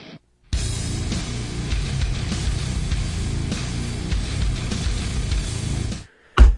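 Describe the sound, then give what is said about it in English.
A loud, heavily distorted nu-metal guitar riff from a song released in 2002 chugs in a repetitive, driving pattern for several seconds, then cuts off abruptly. No voices are heard. “If you've heard that much of the song, you've heard the whole fucking song.”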